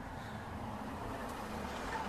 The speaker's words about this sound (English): there goes a truck.